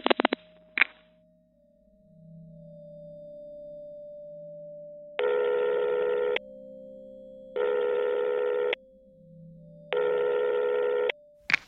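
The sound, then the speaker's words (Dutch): A phone ringing tone sounds three times, each buzzy ring lasting about a second with a steady pause between, over a faint continuous tone, after a few sharp clicks at the start. “Ik moet mijn telefoon geven. Just give me a moment.”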